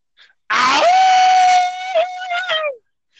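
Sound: imitated wolf howl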